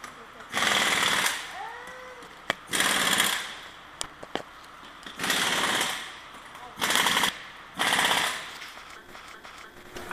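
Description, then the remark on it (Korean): In an auto repair shop in Wontong town, a pneumatic tool rattles in five loud, harsh bursts, each lasting about a second, separated by short pauses filled with faint background clatter. “그래서 오늘은 저희 아빠가 계시는 원통 읍내 장동차 정비 공장을 찾아왔습니다.”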